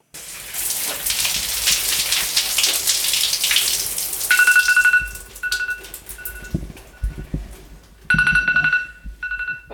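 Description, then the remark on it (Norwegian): A phone alarm, set to keep showers short, rings in repeated electronic bursts over the steady hiss of a running shower in a home bathroom in Risør, Norway, starting about halfway through and cutting in and out as water splashes. “står på badet hjemme i Risør og viser oss hvordan alarmen hjelper henne med å korte ned på dusjetiden”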